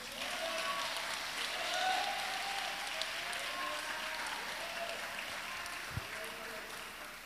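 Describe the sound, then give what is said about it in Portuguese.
An audience applauds Jesus steadily for about seven seconds, a dense wash of many hands clapping at an even level, with faint scattered voices mixed into the noise. “Quem pode aplaudir a Jesus por isso?”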